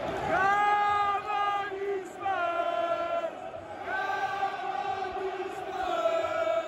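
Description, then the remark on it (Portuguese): A crowd of football fans chants loudly in unison outside Craven Cottage in England at 11:15 at night after the Fulham–Tottenham match, as the Tottenham bus leaves and fans wait for the players; voices rise and fall in repeated sung phrases over a steady roar of shouting, no single voice standing out. “Estou na porta do Craven Cottage. O ônibus do Tottenham está por aqui saindo, alguns torcedores esperando a saída dos jogadores.”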